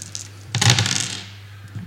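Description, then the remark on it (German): A quick clatter of dice being rolled, rattling and tumbling on a tabletop, fairly loud, lasting under a second before settling over a low background hum. “Okay, ich habe drei Sechsen.”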